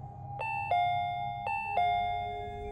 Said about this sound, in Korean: 그래도 자고 있을 수도 있기에 일단은 현관문 앞까지 가서 초인종을 눌러보았습니다.